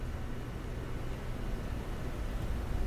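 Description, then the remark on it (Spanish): Steady, continuous dark noise played as a selected background sound setting on a device, a deep low rumbling hiss with muffled highs, holding at an even, moderate level throughout with no voices or other sounds. “Seleccionado. Ruido oscuro.”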